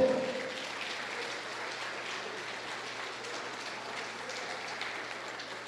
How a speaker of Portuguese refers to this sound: Aplauda o Senhor.